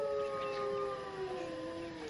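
A sustained wolf howl with layered, slowly falling tones, drawn out steadily over a couple of seconds at moderate volume, with no talking.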